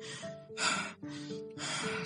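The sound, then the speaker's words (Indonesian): A voice imitates exhausted panting: four quick, loud, breathy gasps in and out, rhythmic, with a strained vocal edge on each breath. “Nafasnya seperti hampir habis dan terengah-engah”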